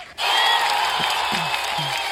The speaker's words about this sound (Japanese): で、笑い声じゃないですか。